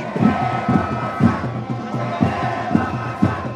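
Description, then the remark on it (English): A large protest crowd in Guatemala City's main plaza shouts "Respect the popular will" in unison, rhythmic chanted bursts repeating roughly every half second, loud and dense with many overlapping voices. “The young, idealistic people who had just won elections forced open the door and began shouting, Respect the popular will in Guatemala City's main plaza.”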